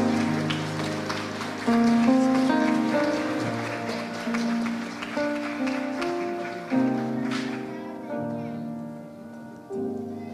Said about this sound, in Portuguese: E a igreja diz: Uma salva de palmas.